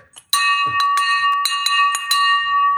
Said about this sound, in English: Okay. Well, first of all, I'm ringing this victory bell for you.